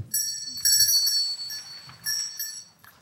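A small bell rings steadily for about three seconds, its bright, sustained tone wavering slightly as it is shaken, clear, then fades away at the end; it is rung as a signal for an audience to hold up red or blue papers.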